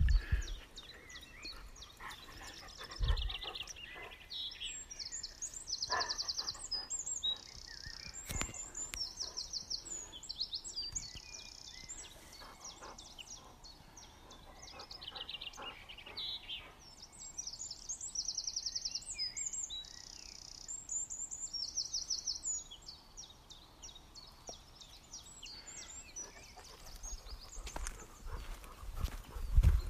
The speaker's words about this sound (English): Yeah, they, they twitter away, tweet away. And I've decided that they don't tweet from the top of the tree. They're, they're tweeting from evergreens here.